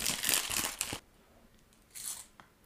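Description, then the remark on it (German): A fortune cookie being opened breaks, crunching and crackling inside its plastic wrapper, a dense burst of crinkling for about a second, then a quieter pause and another brief rustle. Fairly loud, no talking. “Ich habe ihn in der Packung zerbrochen.”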